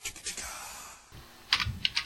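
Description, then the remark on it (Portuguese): Hard, rapid keystrokes clatter as a person pounds a computer keyboard, a burst of heavy typing followed by a brief lull, then a few louder, forceful key strikes. “Para de socar o teclado”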